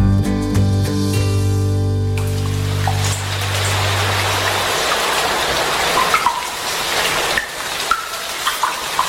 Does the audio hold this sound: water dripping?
yes